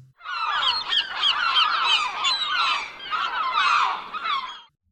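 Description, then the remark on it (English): A flock of seagulls squawks and cries loudly, many harsh overlapping calls running continuously for several seconds before stopping abruptly. “This is how a seagull sounds.”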